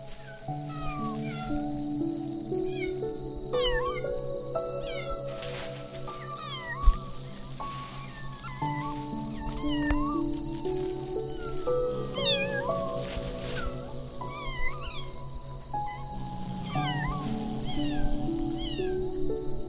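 Several kittens mew repeatedly in thin, high-pitched squeaks scattered across the whole stretch, clear, over a soft, steady musical backdrop.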